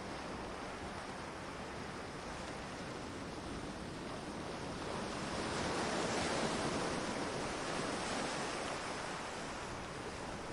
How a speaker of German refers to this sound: Du lauschst dem gleichmäßigen Schlagen der Wellen und dem Heulen des Windes und spürst, wie sich deine Sinne beruhigen und deine Gedanken zur Ruhe kommen.